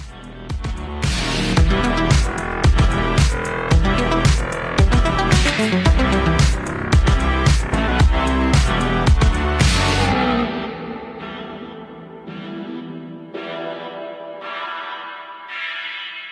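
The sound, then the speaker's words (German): A short outro jingle: loud, driving bell-like music with steady rhythmic hits for about ten seconds, then a few sparse ringing chimes that linger and fade away, with no voices. “Sollen wir wieder still sein beim ja, Outro?”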